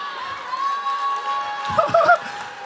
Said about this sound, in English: All y'all screaming and dancing. Yep. Yep, that's what I want.